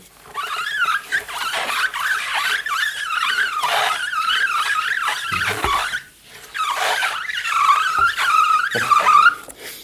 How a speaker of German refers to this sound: Da kann man also schön so dieses äh, Quietschen der, mhm. der Reifen machen. Das ist natürlich immer so eine Frage, wie man das mit dem Mikro einfängt.